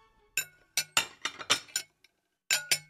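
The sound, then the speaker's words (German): Glass and dishes clink in a kitchen, a run of sharp, bright knocks: several quick strikes in an irregular cluster, a short pause, then two more. No talking. “Steht ein Vogelkäfig zum Beispiel in einer Küche, dann hört der Papagei vor allem”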